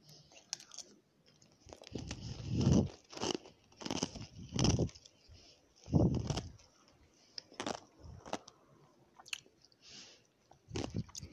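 Loud, crackling crunches of ice being bitten and chewed in irregular bursts, each crunch followed by grinding mastication, with brief quiet gaps between bites and no talking.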